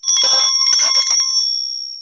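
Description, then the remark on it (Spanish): A loud, bright bell rings rapidly for about a second and a half, a jangling metallic trill, then its high tone lingers and slowly fades. No voices. The bell is rung in a debate to signal that a speaker's time is up. “bájale tres barros a tu campana.”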